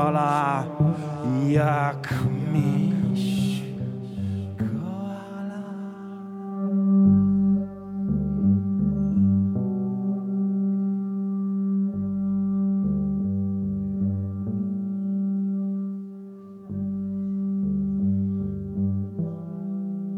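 A trombone plays a solo of sustained, low brassy notes moving melodically, loud and close, after a busier opening passage with other instruments.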